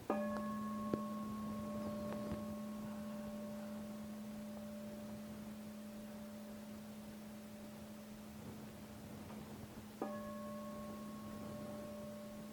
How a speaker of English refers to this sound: can bring your mind to the sound as you hear the bell ringing.